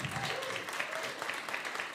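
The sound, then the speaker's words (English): Steady, dense applause from a church audience giving a round of applause to God after worship, a continuous crackle of many hands clapping at once, fairly loud and even throughout, with a few faint voices mixed in. “So let's just give up another round of applause, another shout of joy for God.”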